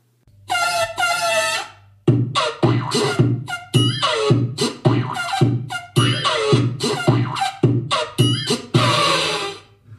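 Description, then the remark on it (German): A cartoon little elephant's sound effect, the little elephant that has waddled across the screen for 46 years: a long brassy trumpet blast, then a quick series of short, bouncy honks of varying pitch, and a final long blare, loud and with no talking. “Ja, das ist der kleine Elefant, wie er seit 46 Jahren über den Bildschirm watschelt.”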